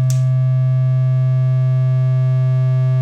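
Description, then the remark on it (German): A sustained, buzzy synthesizer tone at a low pitch drones steadily and loudly from start to finish after a short attack. Its timbre shifts only subtly and slowly as the waveform of one oscillator is modulated by a sine wave from a second oscillator. No voices are heard. “Und jetzt können wir diese Wellenform, von der wir besprochen haben, können wir über einen Sinus aus einem anderen Oszillator sehr langsam verändern.”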